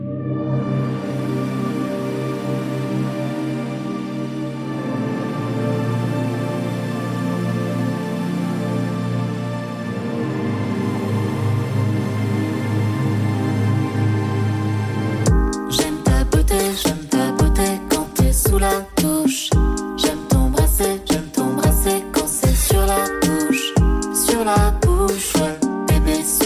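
A pop song plays with no talking, opening on a sustained, droning synth intro before a punchy beat kicks in halfway through and drives the full, loud arrangement forward.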